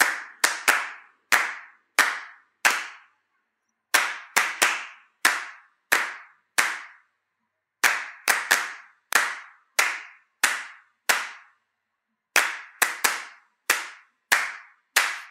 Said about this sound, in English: Let's clap the happy birthday song together. On the count of three. Ready? One, two, three.